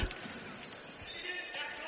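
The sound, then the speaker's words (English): A basketball bounces on a hard gym floor as Getz brings the ball up and dribbles to his right during a Cobbers basketball game, a few spaced thumps standing out against a constant wash of crowd noise and indistinct voices. “As Getz brings the ball up, hollers out of play, dribbles to his right.”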